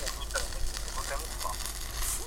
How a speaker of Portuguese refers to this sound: nós estamos a ouvi-lo um bocado mal porque isto, o, o, o ah, chouriço está, está a fazer muito barulho.